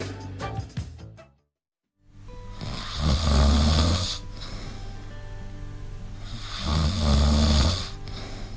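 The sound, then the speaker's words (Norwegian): Loud snoring, two long rasping breaths around a pause, each swelling with a low rumble and breathy hiss. A brief gap of silence precedes them, with no speech. “Har du ennå ikke stått opp?”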